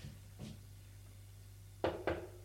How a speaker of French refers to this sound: Il frappe à une porte.